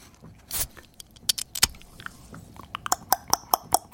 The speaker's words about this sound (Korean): 이렇게 따라야 되겠죠. 자, 이 맥주 캔, 캔 따는 소리가 일부에 나가는 노래 중간에 나올 겁니다.